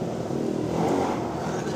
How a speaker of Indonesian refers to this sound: suara motor suara motor